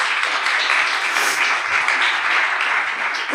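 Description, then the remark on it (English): A crowd applauds steadily to welcome a guest from a sustainable-food database company, a dense wash of many hands clapping at an even, fairly loud level with no talking over it, running without a break for the whole stretch. “So let's give him a round of applause for being here.”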